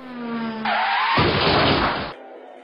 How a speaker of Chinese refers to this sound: 砰的一声巨响，他直直的撞向绿色的新车，谢天谢地，只是刮到了保险杠。新车听到一声长长尖锐的刮擦声。